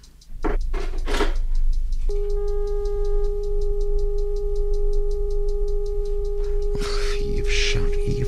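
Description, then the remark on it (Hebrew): A steady, continuous telephone off-hook buzzing tone drones for about five seconds after clattering sounds of the receiver being lifted and set aside, while a clock ticks evenly throughout and rustling follows when the tone stops. “אפשר לישון עם הזמזום הזה. תכסה אותה בכרית או במשהו.”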